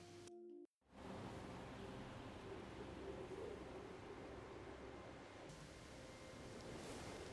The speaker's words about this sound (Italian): Ecco, sotto questo effetto di vento c'è questa nota acuta dell'organo, tenuta, il tema.